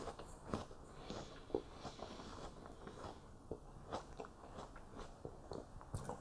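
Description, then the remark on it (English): Someone bites into an apple and chews it, with a string of wet, crunchy bites and irregular chewing crunches over several seconds and no talking. “Apple.”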